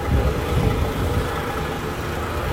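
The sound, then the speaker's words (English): The engine of the Manchester United team bus idles, a steady, low, throbbing rumble that holds at an even level throughout with no voices over it. “the engine that you can hear behind me is the Manchester United T bus.”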